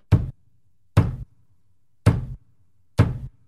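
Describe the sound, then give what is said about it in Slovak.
Four heavy, dull bangs of a meat tenderizer held by a girl standing on a couch, striking a living-room wall, evenly spaced about a second apart, each with a thumping low body and brief crack, with quiet between them. “a búcha do steny.”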